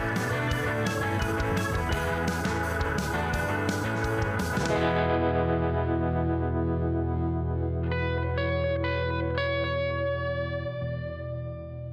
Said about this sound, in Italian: Ah, bellissima, oh. bella questa sigla.